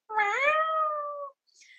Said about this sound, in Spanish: Pero Belun tiene un miau de drogadicta. Belun tiene un miau de drogadicta de 40 años que vive en un motel de mala muerte.